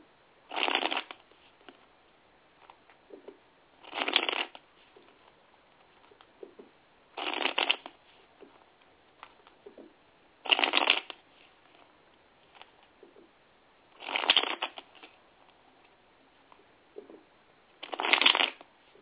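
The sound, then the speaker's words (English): Tarot cards are shuffled for a general tarot reading in six brisk bursts spaced about three seconds apart, each a short riffling flutter, with quiet handling noises in between and no talking. “Give me just one moment so I can shuffle.”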